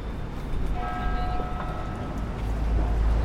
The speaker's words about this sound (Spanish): mientras escuchamos otras las campanadas de fondo, a ver.